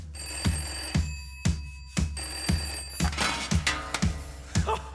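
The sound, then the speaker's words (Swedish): A telephone bell rings repeatedly inside a piece of music, its bright metallic tones sitting over a steady, punchy drum beat. No one speaks. “en hysterisk groupie i slutet på låten. Det är hon som ringer upp”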